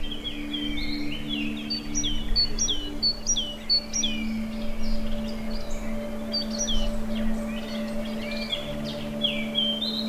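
Many birds on an island chirp and sing in a continuous overlapping chorus, bright tweets repeating throughout, over a steady low background hum with no talking.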